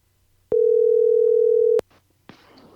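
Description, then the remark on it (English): A phone line ringing on an outgoing call: one steady, mid-pitched ring tone lasting just over a second, cut off by a click, then a brief pause and a soft hiss as the line picks up. “don't tell me anymore because we're gonna call you.”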